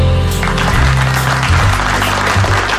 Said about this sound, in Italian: Perché applaudono?